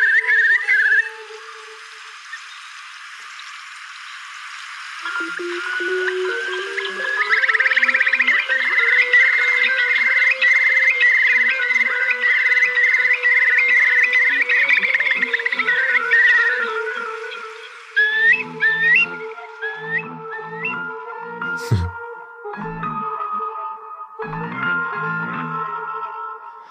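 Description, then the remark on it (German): A Eurasian curlew's display song: fluting notes rising into a long, rapid bubbling trill, then repeated slurred whistles, loud against a steady background hum, with no talking. “dann weiß man sofort, warum er seinen englischen Namen hat, weil im Englischen heißt der Curly.”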